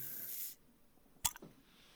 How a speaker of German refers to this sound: Ich äh, habe mir mal eine Limo aufgemacht. Ah, na, jetzt Mache ich auch mal. Für unsere ASMR-Freunde, ich mach's mal vor dem Mikrofon.